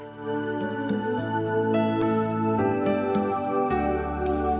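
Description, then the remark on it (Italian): An Italian pop ballad plays over the radio, with full, sustained chords and rich layered instrumentation held at a steady, fairly loud level, without any talking over it. “… arriva su RTL 102.5 con eh, …”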